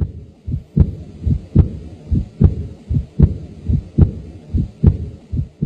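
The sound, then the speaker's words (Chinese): A fast heartbeat pounds steadily, each deep, muffled thump followed quickly by a softer one in an even lub-dub rhythm, with no voices over it. “啊，我的心跳的好快，好快。”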